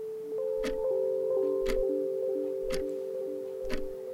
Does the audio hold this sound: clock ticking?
yes